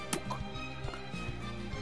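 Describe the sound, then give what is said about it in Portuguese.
A single short, wet splat made with the mouth, imitating a water balloon bursting, comes right at the start, fairly loud, followed by steady background music with faint clicks. “E caiu se espatifando, como se fosse uma bexiga de água, sabe?”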